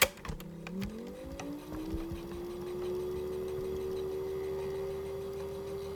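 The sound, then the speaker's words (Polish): A cassette tape recorder with a slightly broken lid rewinds to the left: a sharp mechanical click, then a steady motor whine that rises in pitch and settles into a continuous hum, with no talking. “Tu jest lekko pokrywa połamana i, i zaraz to Państwu zademonstruję, jak, jak pracuje mechanizm. Przewijanie w lewo.”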